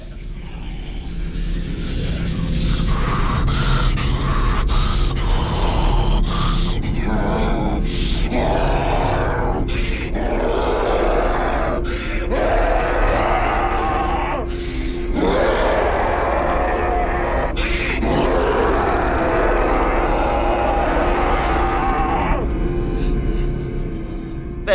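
Deep, guttural troll sounds from the film's two main characters, Vore and Tina, go on almost continuously as grunts and groans, with breathy gasps and short pauses between bursts. They are loud over a low rumbling background.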